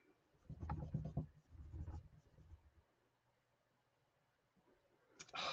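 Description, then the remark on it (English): Vigorous scrubbing, pressing hard on smooth Yupo paper, a few rough bursts of friction in quick succession, then a pause and a brief harsher scrape at the end; fairly quiet, no voices. “you got to press pretty hard, by the way. I'm not being really fragile with this. I, I really am scrubbing and the Yupo paper is doing great.”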